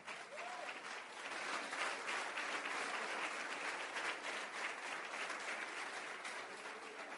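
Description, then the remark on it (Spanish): An audience applauds God steadily for several seconds, a dense, sustained wash of many hands clapping at once, fairly loud and even with no voices standing out. “No, si le va a aplaudir a Dios, no le engañe.”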